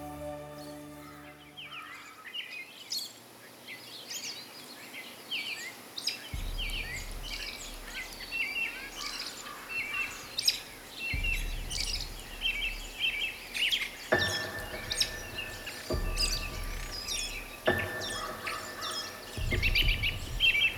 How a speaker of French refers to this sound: J'ai donc euh, décidé de faire cette reprise, la marche de Brian Boru, comme si on était en plein pique-nique dans ma cour. Et vous allez voir que les oiseaux s'en sont donnés à cœur joie cette journée-là.